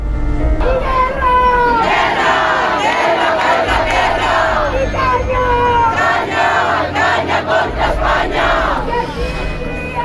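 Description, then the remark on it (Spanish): A loud crowd of about fifty radical protesters shouts slogans together at Shakabat's information tent, many voices chanting in rough unison with rhythmic bursts, continuous throughout with no quiet gaps. “Pues lo que ha pasado es que medio centenar de radicales no aceptaban que Shakabat estuviera allí y les han gritado cosas como esta.”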